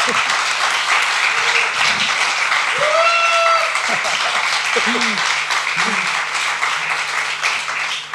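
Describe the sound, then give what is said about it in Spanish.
Steady applause from a crowd, a dense continuous patter of many hands clapping at an even loudness for several seconds, with a few indistinct voices and whoops rising briefly over it. “Y por eso también recibe este aplauso.”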